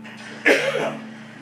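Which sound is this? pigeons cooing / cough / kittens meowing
cough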